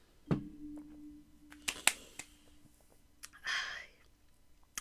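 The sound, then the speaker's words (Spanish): A glass clinks and rings briefly, followed by a few light clicks and then a soft, airy slurp and exhale as someone sips wine, with no talking. “Vamos a darle un sorbo a esto.”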